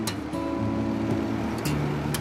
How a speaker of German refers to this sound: Mit Leos Boot fahren wir raus, in die Atlantikgewässer vor Noronha.